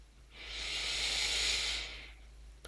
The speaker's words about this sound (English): So, like every episode, I'd like to invite you to take a breath with me here, breathing deeply in through your nose